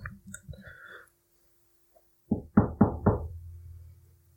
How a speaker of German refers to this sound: Wer klopft denn da?